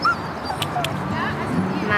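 A border collie whimpers in thin, high-pitched whines, short and repeated, with a couple of brief sharp yips mixed in, over faint background murmuring.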